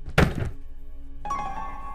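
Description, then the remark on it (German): A single heavy, dull knock on the door of a hut, loud, part of slow knocking with unpleasantly long gaps, echoing strangely, followed by a low lingering hum and then a brighter sustained tone. No one speaks. “Dieses Pochen ist langsam, sind die Abstände zwischen den Klopfgeräuschen sind zu lang, unangenehm lang.”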